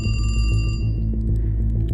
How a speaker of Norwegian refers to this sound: Men ved midnatt så ringer lensmannen.